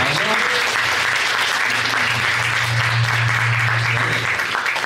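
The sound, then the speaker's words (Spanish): A live audience claps steadily and loudly for several seconds for the act about to open the show, a dense wash of many hands with a low hum underneath, no voices standing out. “va a abrir el show. Un aplauso”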